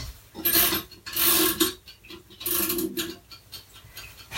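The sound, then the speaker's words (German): A mechanical kitchen timer is wound to about 56 minutes for bread baking in the oven, with bursts of dry ratcheting clicks, four or five rasping pulses in an uneven rhythm, with no voices. “stelle den Wecker auf so 56 Minuten.”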